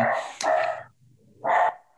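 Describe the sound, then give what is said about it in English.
A small King Charles Cavalier spaniel barks twice, fairly loud: a longer, rougher bark, then a short pause and a sharper second bark, with a quiet low murmur in the gap. “you have a dog. What kind of dog do you have? I have three King Charles Cavaliers.”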